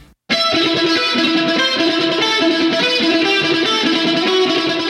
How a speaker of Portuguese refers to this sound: Mas durante a pré-produção do álbum, ele tocou o riff inicial da canção para Steve, que amou e insistiu que eles gravassem. Vamos ouvir um trecho desse riff da guitarra isolado.